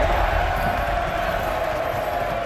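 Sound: applause and cheering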